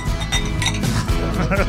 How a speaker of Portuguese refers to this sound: Vamos brindar então? Então vamos brindar. Vamos. Saúde, saúde, saúde, saúde, saúde, saúde.